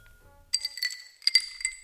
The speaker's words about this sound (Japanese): じゃあ中野ゼミに乾杯